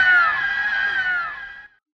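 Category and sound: sound effect, loud scream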